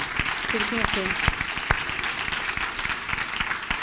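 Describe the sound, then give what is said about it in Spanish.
A crowd claps together in sustained, dense applause for Jesus, the King of Kings, with a brief voice rising over the clapping near the start before the applause continues steadily to the end. “Déle ese fuerte aplauso al Rey de Reyes.”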